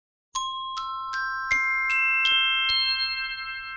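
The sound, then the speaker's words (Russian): A glockenspiel modified with a sustain pedal like a vibraphone, its pedal held, struck with xylophone-type mallets: seven bright, bell-like notes climb one by one at an even pace, each ringing on and blending into a shimmering sustained chord. “Да, по идее, колокольчики, они редко с педалью.”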